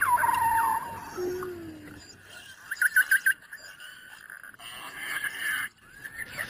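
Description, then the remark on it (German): Beluga whale whistles and trills heard underwater: sliding tonal whistles, a burst of rapid pulsed chirps, and further squeaky calls over a soft hiss, moderately loud, with no talking. “Die pfeifen und trillern und zwitschern halt den ganzen Tag und das unter Wasser zu hören, wo sich sowieso die Schallgeschwindigkeit und der Schall viel besser ausbreitet, das ist wunderschön.”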